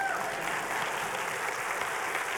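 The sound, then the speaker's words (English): An audience claps together in steady, dense applause, a continuous crackling wash of many hands that holds an even loudness throughout with no voices standing out. “If you're looking for a place to clap, that would be the place to clap.”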